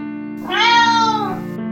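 A single drawn-out cat meow, loud and clear, its pitch rising then sliding down over about a second, over a low steady hum with no one talking.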